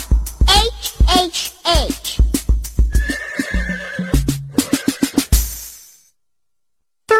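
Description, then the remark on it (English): A horse whinnies loudly with a rising, wavering neigh while hooves clip-clop in a quick, steady rhythm, ending in a brief breathy snort before silence. “H is for horse.”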